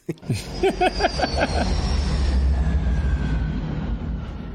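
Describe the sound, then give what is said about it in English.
A jet plane roars overhead in a loud, sustained rumble, its high whine sliding lower as it passes; a few brief vocal sounds come at the very start. “I got the goddamn flyover that we ignored. Um, betcha. Hit that goddamn plane jet thingy.”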